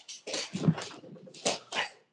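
Dogs fight, scuffling and snarling in a quick string of rough, growly bursts and yelps that rise and fall over about two seconds, with no one talking.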